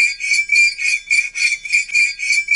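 A fork scrapes back and forth across a water glass, a piercing high squeal with about six rhythmic, gritty strokes, loud, with no voices.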